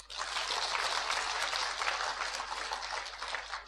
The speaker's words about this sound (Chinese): 给他鼓掌喝彩好吗？